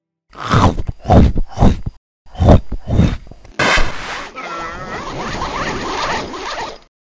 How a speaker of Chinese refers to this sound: 村民就在想说，这这到底什么声音啊？好像是牙齿咀嚼骨头发出来的声响。